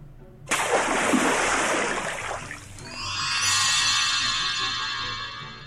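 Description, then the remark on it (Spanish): Water splashes in a sudden rushing burst, then settles into a steady, hissing pour or spray that carries on to the end, fairly loud, with no voices. “Y por supuesto, necesitas mucha agua.”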